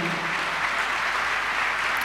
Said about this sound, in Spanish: Dale un aplauso a Dios por eso, hermano.